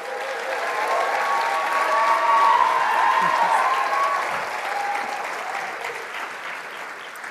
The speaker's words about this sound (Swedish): Så vi ska ge dem en stor applåd.